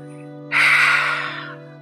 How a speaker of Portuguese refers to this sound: Faz uma respiração profunda pelo nariz inspirando e expira pela boca fazendo esse som assim, ó.